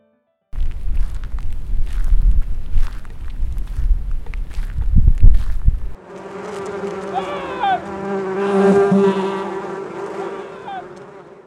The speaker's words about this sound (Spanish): Y las abejas lo persiguieron tan terriblemente que al otro no le quedó más remedio que meterse a la casa del santo a pedirle que lo salvara del enjambre de abejas que lo perseguía y que rezara por él.